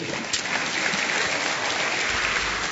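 An audience applauds steadily, a dense, even wash of many hands clapping that stays loud and sustained for the whole stretch, with no voices standing out.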